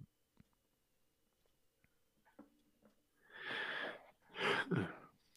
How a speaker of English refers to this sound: But if you can uh, see that your yawn was a good one.